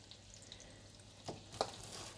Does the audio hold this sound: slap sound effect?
no